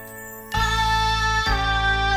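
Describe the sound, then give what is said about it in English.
After a half-second of faint tone, loud music abruptly kicks in with full, sustained chords, shifting to a new chord about a second later; no one speaks. “Could I please have all the lights turned down low? Thank you. Music, please.”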